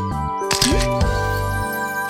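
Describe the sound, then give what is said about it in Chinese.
A camera shutter fires with a quick, crisp mechanical click-clack, followed by a second sharper snap, as a photo is taken with monkeys at a zoo on a hot day, set over steady background music with no one talking. “我帮你和这些猴子合张影吧。”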